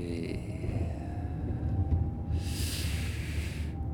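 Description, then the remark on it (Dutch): A vehicle slows under a steady low engine rumble, with a thin brake squeal drawn out in the middle and a loud hiss of air or friction near the end. “En weer remmen.”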